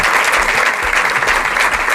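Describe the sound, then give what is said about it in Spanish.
Sustained audience applause at Biopar, a dense, steady wash of many hands clapping at a constant loud level for the full two seconds, with no voices standing out. “Un aplauso.”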